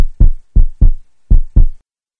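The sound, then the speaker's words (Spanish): A heartbeat thumps in heavy double pulses, lub-dub, repeating three times in a steady rhythm with deep low booms and nothing else around it. “Y el corazón no para de latir cada vez más y más fuerte según se acerca el momento fatídico de enfrentarse al examen.”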